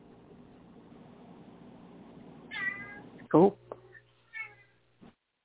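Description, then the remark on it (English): A mother cat meows a few times in short, rising calls, one loud, others softer, over a low background hum; a person briefly speaks in between. “She's Emmy's like, like she's preach, meow- girl, preach.”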